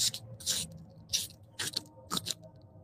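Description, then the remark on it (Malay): A voice imitates wet slippers walking from a swimming pool to a living hall: about five soft, squelchy slapping bursts in an uneven walking rhythm, fairly quiet, with no talking around them. “Bunyi sleeper basah berjalan daripada daripada pool ke area living hall.”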